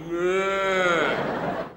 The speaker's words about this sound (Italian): Il pedone è diventato insensibile, non realizza più, non si scansa nemmeno col param, parapapapaparam, nemmeno col clacson a mucca.